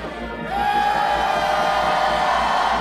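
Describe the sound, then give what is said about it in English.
An audience shouts together in a sustained, roaring swell of many voices that rises sharply after a brief moment and stays loud and dense throughout, with cheers and whoops mixed in. “Everybody just shout one time.”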